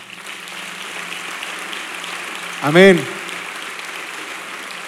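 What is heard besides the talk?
audience applauding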